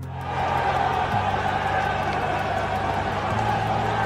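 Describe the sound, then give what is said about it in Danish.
A dense crowd of football fans in front of Chelsea's Stamford Bridge stadium in London roars continuously, a steady wash of many voices cheering and chanting, with no pauses over the few seconds. “der var i hvert fald mange fans, der var dukket op foran øh, fodboldklubben Chelsea's stadion Stamford Bridge i London, og det lød sådan her.”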